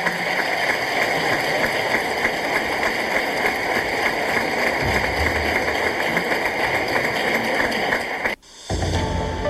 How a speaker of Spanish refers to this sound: Pues ya escuchamos ahí, Alfredo, lo que generó aplausos